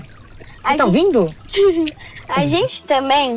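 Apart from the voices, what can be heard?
trickling water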